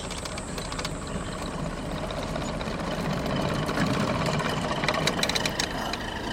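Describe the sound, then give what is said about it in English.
A boat engine runs steadily with a low, rumbling drone and faint mechanical ticking, growing slightly louder partway through, as the boat heads full steam out of a tributary. No voices are heard. “We're heading full steam out of the tributary.”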